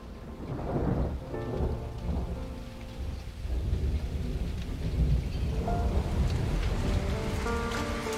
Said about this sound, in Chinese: 今天下雨了，